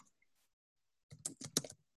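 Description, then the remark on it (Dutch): After a moment of near silence, a quick flurry of keystrokes clatters on a computer keyboard, fairly loud, lasting under a second with no voices. “nou, ik ga ik natuurlijk de hele tijd verkeerd typen.”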